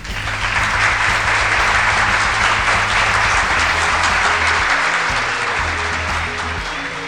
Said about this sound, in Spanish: Gracias, gracias, gracias por esos aplausos. Me, me da un poquito de vergüenza. Los, aplausos. Dale un poquito más de aplausos. Dale, dale, ponele.